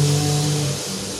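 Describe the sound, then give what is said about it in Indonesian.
A motorbike in a village drones past with a steady, buzzing low hum that holds for most of a second, then eases off as the bike moves away. No one speaks. “motor jancok resiko resiko hidup di kampung belum punya studio”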